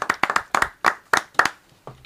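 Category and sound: crowd, applause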